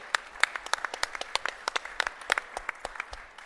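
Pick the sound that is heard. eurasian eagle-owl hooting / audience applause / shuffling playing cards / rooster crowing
audience applause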